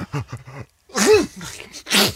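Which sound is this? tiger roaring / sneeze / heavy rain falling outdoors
sneeze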